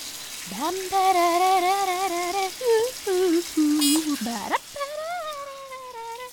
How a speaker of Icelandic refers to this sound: Þarna var einhver mamma að styrta sig fyrir djammið